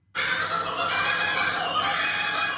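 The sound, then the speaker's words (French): A loud, raucous kookaburra (laughing kingfisher) call, the bird sound used as the voice of Flipper the dolphin, erupts abruptly and continues steadily, a dense cackling chatter like manic laughter filling the short stretch without any talking. “vous dire que le son de Flipper, le dauphin, bah, ce son qui a bercé une partie de notre enfance, c'est en fait le son d'un oiseau pas du tout d'un dauphin, un martin chasseur.”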